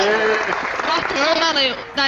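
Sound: applause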